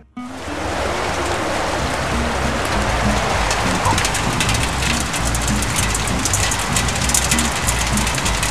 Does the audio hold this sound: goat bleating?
no